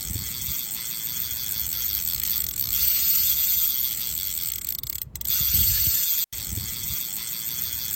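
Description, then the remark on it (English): A fishing reel clicker ratchets loudly as a bait check, played twice: a dense, rapid buzz of clicks that runs nearly the whole time, broken by two brief stops near the end. No one speaks. “it is a double bait check. Apparently, I like to push the button twice today.”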